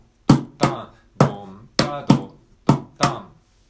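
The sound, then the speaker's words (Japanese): A mini cajon is struck in a steady drum pattern of seven sharp hits, alternating deep low bass-drum thumps with brighter high-tone slaps, each ringing briefly before the next; no talking. “ミニカホンを叩いてみた”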